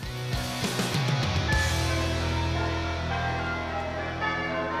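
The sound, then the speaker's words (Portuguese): Several bells ring out together in a rich, clanging peal, a couple of fresh strikes near the start and then long, shimmering tones that hang and overlap. No voices. “Os sinos espalham alegria, pensaram as gêmeas.”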